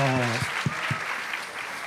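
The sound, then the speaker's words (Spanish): An audience breaks into steady, dense applause for the day's guest on a show, filling the whole moment, with a short burst of voice at the very start before the clapping carries on alone. “Otro, otro aplausito”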